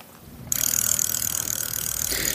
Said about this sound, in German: Der Freilauf surrt, der Schotter knirscht wenn dein Bike an die Spitzkehre pirscht.